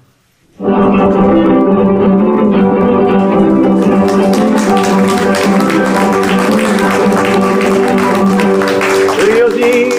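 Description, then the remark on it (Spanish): After a split second of quiet, a recorded criollo song kicks in loudly and plays on steadily, with a sung Spanish vocal line carried over sustained instrumental accompaniment. “Ah, y la escucharemos en la versión”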